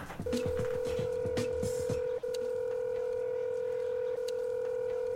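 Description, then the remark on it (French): A rapid string of electronic telephone keypad beeps, then a steady ringing tone that goes on unanswered, clear with a faint background hum. “Bon, ben, ça répond pas. Bah, je rappellerai plus tard.”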